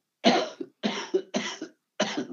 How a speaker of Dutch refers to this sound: ik moet af en toe even hoesten, want ik een uh, verkouden.